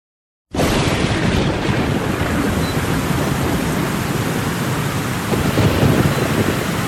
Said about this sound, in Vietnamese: chuyện xảy ra trong một đêm mưa tầm tã